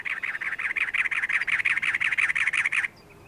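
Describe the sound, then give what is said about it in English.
A cactus wren perched atop a barrel cactus in the desert gives its harsh, chugging call: a rapid run of about twenty raspy notes at an even pace, clear, for nearly three seconds before it stops abruptly. “Now, a cactus wren announces itself atop a barrel cactus.”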